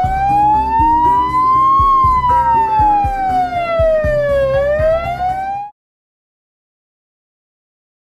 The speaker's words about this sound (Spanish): Ya había llamado antes a la ambulancia. Estará al caer. Ahí están.